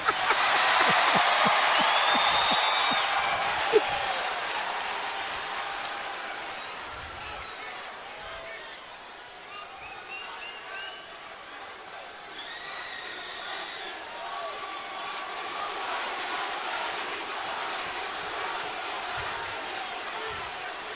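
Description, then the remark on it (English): A large arena crowd roars and cheers continuously, a dense wash of many voices that swells loudest at the start and stays steady throughout, with faint whistles and shouts rising from the mass. “I want you to listen to something. Listen to something, punk. Listen. That's voices.”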